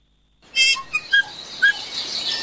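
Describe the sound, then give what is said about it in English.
Bright native birdsong of varied chirps and whistles, several short high tonal notes rising over a steady hiss of background chatter from more birds, starting after a brief silence. “so that we can bring back the birdsong”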